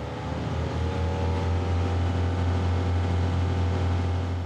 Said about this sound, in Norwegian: Stor motor, mange hestekrefter, høy fart. Den stivskroga oppblåsbare båten av typen ribb er av de mest populære fritidsbåtene langs kysten.